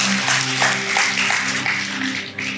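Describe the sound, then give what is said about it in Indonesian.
A church audience applauds for Jesus Christ during a sermon, a dense, steady wash of many hands clapping for a couple of seconds, with a sustained low musical tone humming underneath. “Berikan tepuk tangan buat Tuhan kita Yesus Kristus”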